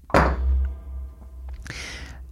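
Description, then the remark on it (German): Dice are rolled: a heavy thunk as they hit a surface, a low lingering rumble, then a brief rattling clatter a moment later, with no voices. “Der kann dazu noch vier Stunden weiterreden, aber ich will noch ein bisschen würfeln.”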